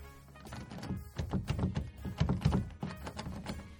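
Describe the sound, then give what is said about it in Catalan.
A copy of a key being tried in an apartment door lock without opening it: a string of dull clunks and small metallic rattles in an uneven rhythm, moderately loud, with no one talking. “Posa una de les còpies de la clau i no obre.”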